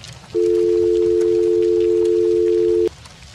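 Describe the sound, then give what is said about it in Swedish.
A steady, loud telephone dial tone hums alone for about two and a half seconds, then stops with a sharp click, leaving only faint line hiss. “Innan det klickar och blir tyst.”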